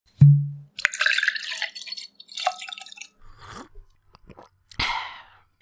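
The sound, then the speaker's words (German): Someone sips and swallows coffee: a low thump, then a few wet slurping and gulping sounds with soft clicks, ending in a short breathy exhale. No one speaks. “Trink mal was. Ah, ich habe hier nur Kaffee.”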